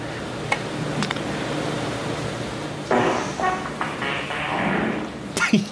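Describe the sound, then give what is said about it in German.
A raspy, buzzing fart noise rises from a quiet audience at a televised snooker final in a vast arena and sputters for a second or two over a steady background hiss, with a few sharp clicks before and after. “Jemand im Publikum hat mit Furzgeräusch der Final gestört.”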